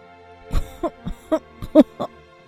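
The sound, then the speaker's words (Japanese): A coughing fit: six or seven short, harsh coughs come in a quick, uneven run over about two seconds, loud and hoarse, with no talking. “せき込みながら、私はまたあの手紙のことを思い出していた。”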